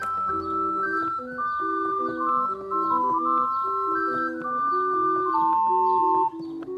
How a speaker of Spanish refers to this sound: las campanitas del carro del vendedor de helados